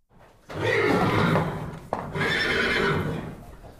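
A large, muscular jet-black horse with thin leather reins whinnies loudly in two long, shaky bursts, with a sharp hoof clop between them and no one speaking.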